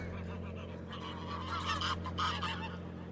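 A flock of geese, scared into flight, honks in overlapping bursts, building to a louder cluster of calls midway, over a steady low background rumble, at Mortagne-du-Nord in northern France near the Belgian border, in early January 2021.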